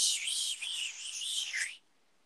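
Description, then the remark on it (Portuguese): A voice makes a steady, breathy shushing hiss imitating white noise, held for almost two seconds with slight wavering, then cuts off abruptly into quiet. Moderately loud. “Porque o ruído branco é aquele.”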